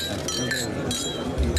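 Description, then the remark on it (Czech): Glasses clink together in a toast, a few bright ringing taps over a busy background murmur, the tones lingering briefly after each touch. “tak na zdraví. Na zdraví.”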